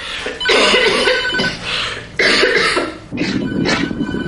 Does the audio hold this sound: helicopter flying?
no